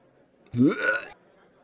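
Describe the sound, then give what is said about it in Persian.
A single short, guttural retching heave as a person vomits in the middle of a long hallway, fairly loud, rising in pitch and lasting under a second, with quiet before and after and no talking. “استفراغ کردم سر معدم جوری سوز میزنه”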